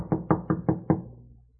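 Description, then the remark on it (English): Five firm knocks on a wooden hotel room door in Bordeaux on a foggy night, in a quick, even rhythm, fairly loud, each with a hollow thud, followed by a short fading resonance and silence. “He doesn't answer.”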